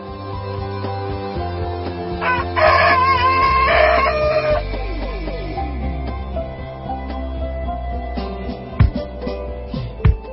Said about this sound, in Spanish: saben que con el canto del gallo, pues las gallinas salen del corral